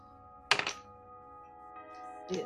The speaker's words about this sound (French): Je vais tirer un des 20 ici devant Joe, pour qu'on soit témoin. Euh, si j'ai 6 et plus, euh, c'est que c'est son bras qui tient Rélix et Rélix est libéré. Si c'est 5 euh, et moins, c'est l'autre bras.